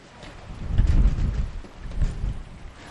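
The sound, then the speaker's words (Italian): Deep, rolling rumbles of thunder swell twice over a steady roar of strong wind during a heavy storm, with no voices present. “questi temporali, questi tuoni, questo vento forte che, che rovescia al fondo, che fa uscire fuori, insomma mette in movimento un po' tutto il pesce.”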